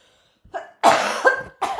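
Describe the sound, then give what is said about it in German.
A few forceful coughs in quick succession from someone clearing a lingering cough in the throat, the first short, then a longer harsh burst and a final cough, with no talking. “Lass mich mal ganz kurz aushusten.”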